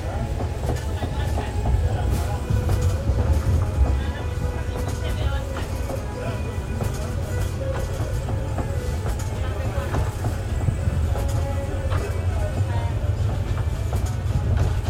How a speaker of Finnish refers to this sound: Junamatka Tansanian halki etenee. Nyt on tulossa jo toinen yö, jonka vietämme tässä junassa.